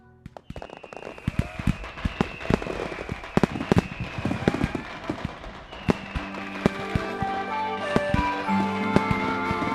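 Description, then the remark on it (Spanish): Fireworks and firecrackers set off by residents of Xiamen and Kinmen celebrating Chinese New Year together in January 1987 go off in a dense, irregular barrage of sharp cracks and pops, with occasional whistling tones. The explosions continue throughout and grow busier toward the end. “En enero de 1987, los residentes de Xiamen y Kinmen encendieron fuegos artificiales para celebrar juntos el Año Nuevo Chino por primera vez.”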